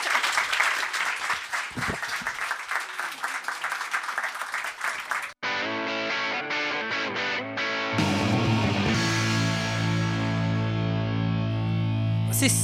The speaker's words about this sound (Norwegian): applaus.